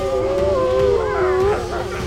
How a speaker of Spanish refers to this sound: Los lobos están muy alborotados, patrón.